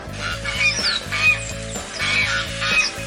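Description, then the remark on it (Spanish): Geese honk repeatedly in loud, overlapping bursts, several birds calling in a steady, choppy rhythm with no one speaking. “dice que son cuatro gansos.”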